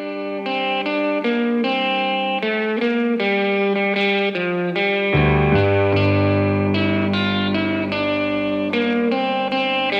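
Microtonal psychedelic rock plays steadily, with distorted, effects-laden guitar notes stepping through a bending melody; a heavy bass and fuller band kick in halfway through. No one speaks.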